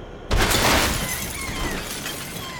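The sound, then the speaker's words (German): A pickup truck's windshield smashes in one sudden, loud crash as a right hand is punched through it, followed by a bright spray of crackling, tinkling glass fragments that slowly fade over the next two seconds. No voices. “Ich stieß meine rechte Hand durch die Windschutzscheibe, packte den Schädel des Fahrers und riss ihn aus dem Wagen.”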